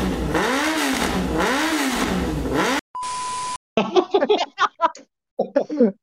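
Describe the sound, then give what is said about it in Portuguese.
A voice mimics a motorcycle revving loudly in two rising-and-falling surges, followed by a brief steady beep and then a string of sharp, sputtering vocal pops imitating the exhaust. “Duas, duas coisas aí, como é que é o barulho da moto?”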